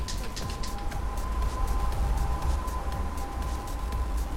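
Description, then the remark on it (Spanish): An approaching ambulance siren holds a steady high tone above a dense, constant rumble of Wednesday-night street traffic, partly buried in the engine noise, as the ambulance speeds through the traffic. “Escuchan que una sirena se aproxima.”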